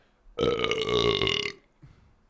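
A long, loud burp rumbles for over a second with a strained, resonant tone, then cuts off, followed by a faint murmur of voice.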